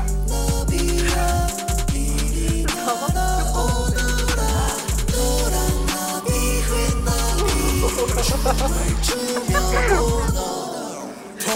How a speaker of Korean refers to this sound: 동요 나비야 나비야 이리 날아오너라 네. 이거를 갖다가 트랩 버전으로 리믹스를 해서 약간 네. 어 되게 무섭고 섬뜩한 버전으로 이제 리믹스한 게 있어갖고